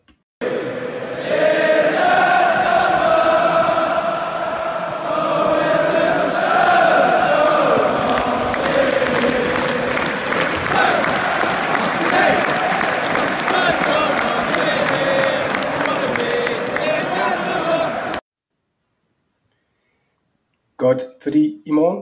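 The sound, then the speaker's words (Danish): A crowd of football fans sings a loud chant together for about eighteen seconds, with rhythmic clapping punctuating the song before it cuts off abruptly into silence. “Lad os få en, øh, lad os få en kort sang her.”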